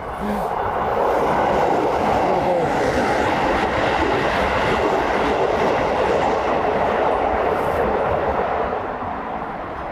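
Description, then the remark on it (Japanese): A train rolls past a railroad crossing, a loud, steady roar of wheels and rattling cars that fills the whole stretch without letting up, with a faint clickety-clack beneath the rumble. “結構うるさいな 踏切。”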